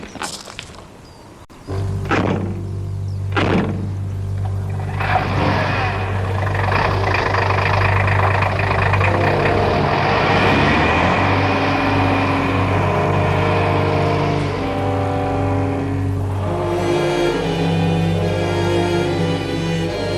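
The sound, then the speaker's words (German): Engines start up with a couple of sharp knocks, then several vehicles rev and rumble steadily, a low droning roar with rising and falling pitch as they pull away together, driving back to the ranch with one following behind the others. “Wir fahren zur Ranch zurück. Los, Jungs, aufsteigen. Ich fahre hinter Ihnen her.”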